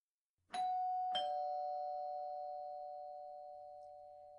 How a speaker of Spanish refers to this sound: El timbre sonó a las ocho en punto.